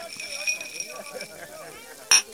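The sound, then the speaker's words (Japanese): A single bright clink of glasses tapping together in a toast at a bar rings out near the end, short and loud against a low murmur of background voices and bar ambience. “それじゃあホッケが来るまでとりあえず乾杯にゃ”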